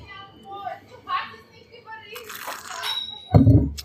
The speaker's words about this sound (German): stoßen mal kurz an auf den fantastischen Wein, den du mitgebracht hast. Das ist das St. Laurent 2016, ausgebaut zwölf Monate im gebrauchten Barrique-Fass.